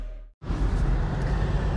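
Steady low rumble of car cabin noise while driving home from Foxborough, a broad road-and-engine hum that cuts out for an instant and then resumes loudly and evenly, with no voices.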